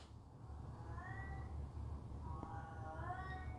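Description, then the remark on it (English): A pet cat meows twice in drawn-out, wavering cries, the second rising higher, against a steady low hum with no talking. “Even my cat chiming in.”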